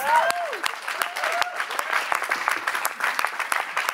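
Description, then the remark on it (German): A large crowd claps steadily and loudly for two people, a dense wash of applause with a few whoops and cheers rising above it. “Einen riesen Applaus.”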